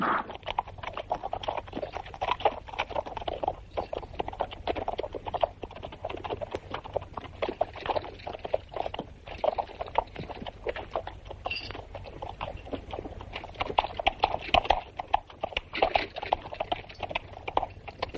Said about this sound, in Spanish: El caballo cabalga con solemnidad portando el cadáver de Rodrigo, el cual lleva una bandera blanca y pasa por delante de sus guerreros.